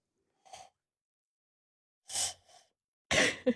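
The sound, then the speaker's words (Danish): Three short, breathy puffs of air blown into cupped hands by a woman attempting an owl hoot, spaced apart, the last one louder; they come out as airy hisses with no clear hooting tone. “hun lader, kan jeg lytte, sidder nu og puster ind i sine hænder og siger, det kan hun ikke.”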